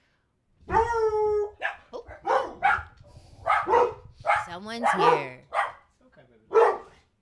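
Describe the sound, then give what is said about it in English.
A dog lets out a drawn-out, tonal bark, followed by more barking mixed in with a person talking over it. “we got a guard dog.”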